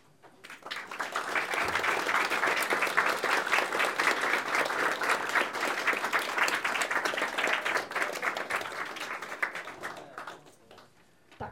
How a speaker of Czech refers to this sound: myslím, že potlesk vyjádřil i to, že vám děkujeme za uh, otevření řady zajímavých témat.